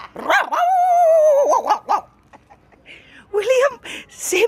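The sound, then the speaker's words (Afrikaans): A man, a street performer at a festival in Oudtshoorn, imitates a dog loudly, starting with a drawn-out whining bark, then a few short yaps, a brief pause, and another burst of yelping barks. “Ek het jou nou al 'n paar keer raak geloop van jy's so 'n hond gemaak het en ek het my half simpel geskrik en ek het jou dopgehou hier by die kakaka.”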